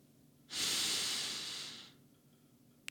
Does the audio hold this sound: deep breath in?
yes